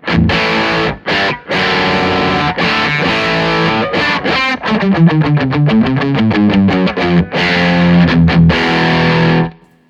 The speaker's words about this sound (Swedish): Eh, och och sen så Rat. Jag ska bara prova rida, rida lite på filtret här. Det här vill man nästan lägga på lite mer dist och eh, vrida av lite topp.